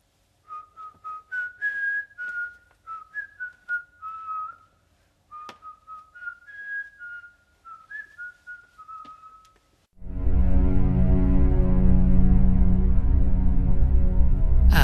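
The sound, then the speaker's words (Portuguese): A young man whistles a lilting melody of short, bright phrases for about ten seconds as he walks away at night, clear; then a loud, dense, sustained sound abruptly takes over. “O homem, jovem, afasta-se, assobiando.”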